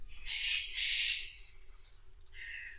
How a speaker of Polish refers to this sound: Myślałem, że tu nas nie ma kakadu. Myślałem, że kakadu tylko w Australii.